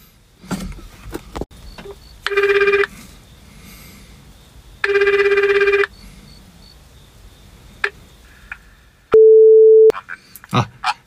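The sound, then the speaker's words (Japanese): A phone ringback tone purrs twice while someone phones the police station at this hour, each burst about a second long with a pause between, then a short steady beep. Scattered clicks and handling noises fill the gaps; no one speaks. “一応、うん、この時間だけど警察署に電話しといた方がいいかなと思って、ちょっと、電話してみます。”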